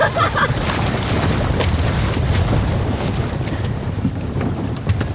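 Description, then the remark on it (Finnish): Rough sea around a boat: a steady, loud wash of water and churning low rumble, with gusty wind buffeting the microphone throughout and no clear pauses. “Joo, nyt on aika moinen merenkäynti ja...”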